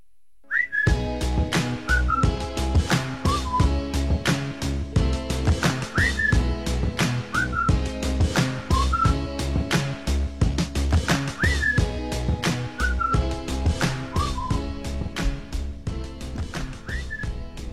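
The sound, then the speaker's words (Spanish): A song with electronic touches: a steady, driving beat over deep bass and layered tones, with short whistle-like chirps recurring every few seconds. Loud, full, and without any singing or talking. “Ah, y por ahí puede tener unos matices de música electrónica.”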